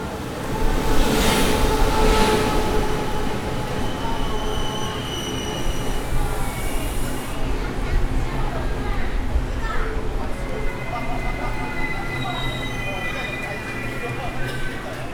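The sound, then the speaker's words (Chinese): A Tze-Chiang express train pulls into a station, recorded from the platform, with a steady, heavy rumble. High metallic wheel squeals ring out early on, then fade as the rolling noise continues and the train slows. “好，你听到吹口哨的声音，火车就是即将进站了哦。”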